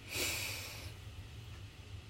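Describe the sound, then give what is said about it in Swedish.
A single deep, hissing breath drawn in sharply through the nose, fairly loud, lasting under a second and followed by quiet with a low steady hum underneath. “Nu, nu för alla då som lyssnar och inte ser, men då andas jag in nu.”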